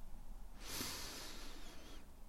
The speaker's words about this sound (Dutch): Je kunt mij volgen. Adem rustig in door je neus.